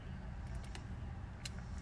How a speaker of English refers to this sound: Y'all probably hear folks in the background. I don't give a damn. I'm in my car.